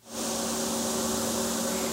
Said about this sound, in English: That sound is the lifeblood of West Virginia's ski industry, snowmaking. Basically, if we didn't have snowmaking here, we might be able to open for February, maybe a couple weeks in February.